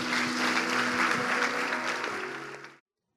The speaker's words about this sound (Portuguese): Vamos dar uma salva de palmas ao nosso Deus.